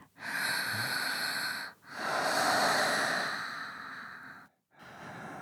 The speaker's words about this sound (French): Et quatre souffles.